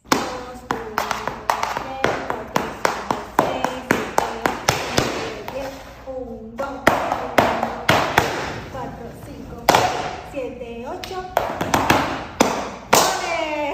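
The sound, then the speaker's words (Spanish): Rapid flamenco heel tapping, a dense run of sharp, percussive strikes in quick bursts and flurries with brief pauses, steady in loudness throughout, over a tonal melodic background. “eso que les puse ahí fue un taconeo que logré hacer con mucha práctica porque todo en la vida es práctica.”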